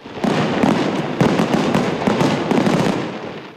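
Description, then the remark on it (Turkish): A fireworks display over the Bosphorus bursts in a dense, continuous barrage, loud crackling explosions overlapping one after another with no pauses and no voices. “Programın sona ermesinin ardından Boğaz'da havai fişek gösterisi yapıldı.”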